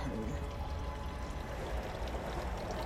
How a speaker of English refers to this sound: Can you hear the water in the background? Love the sound of water. So soothing.